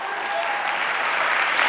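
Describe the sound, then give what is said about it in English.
A crowd bursts into steady, dense applause that swells a bit louder toward the end, with rapid overlapping claps. “All right, if you're gonna clap, you gotta go for it.”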